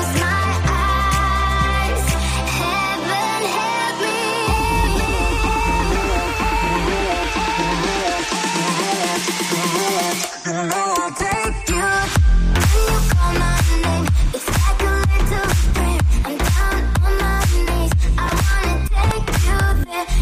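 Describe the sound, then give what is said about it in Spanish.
A loud electronic dance remix of a pop song plays on its own, opening with sustained synths and heavy bass before a punchy, driving four-on-the-floor beat drops in halfway through. “Bueno, pues esto que escuchas es eh, una remezcla que han hecho”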